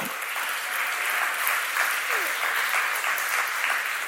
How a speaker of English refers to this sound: Was anyone here right like 2010? Okay, let's have a round of applause. Woo!